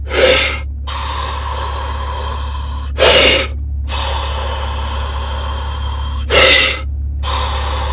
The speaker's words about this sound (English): 30 rounds, or I'm sorry, 30 rounds, 30 breaths like that. Super sharp inhale, slow exhale. Super sharp inhale, slow exhale. 30 breaths, do five rounds of that.